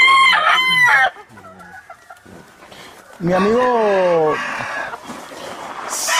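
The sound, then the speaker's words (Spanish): A rooster crows loudly with a long wavering call, while chickens cluck around it and a man speaks briefly. “Son pollos, ¿eh? Yo, yo uso mucho pollo.”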